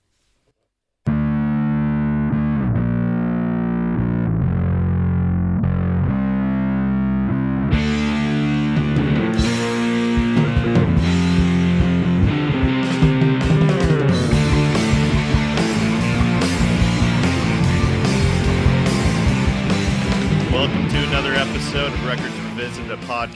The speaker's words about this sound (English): So, you know the intro music. Here it is, and thanks for listening.